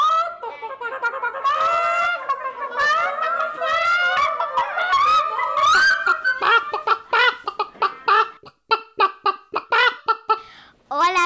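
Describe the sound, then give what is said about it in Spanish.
A henhouse full of chickens clucking and squawking, many birds calling over one another at first, then breaking into quicker, choppy clucks toward the end. Fairly loud, with no talking. “Lindo gallinero.”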